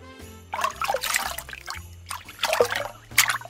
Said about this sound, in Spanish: Ah, ah, ah, no, eso es agua.